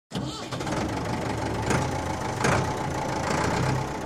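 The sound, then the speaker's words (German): A mid-20th-century Lamborghini tractor engine runs steadily, a low chugging idle with a couple of brief revving surges partway through. “Trecker, mit denen Ferruccio Lamborghini seine ersten Sporen verdient”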